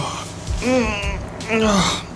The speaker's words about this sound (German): Am Abend, als sie nach einem vorzüglichen Abendessen in ihrer Kabine saßen, gähnte Justus hinter vorgehaltener Hand. Oh.